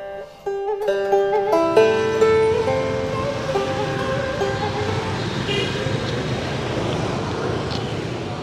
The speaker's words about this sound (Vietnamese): Âm thanh phố xá nhộn nhịp như dừng lại phía sau cổng làng.